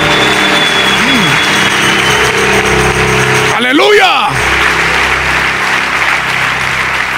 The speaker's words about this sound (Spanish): Dale fuerte aplauso de victoria Jehová.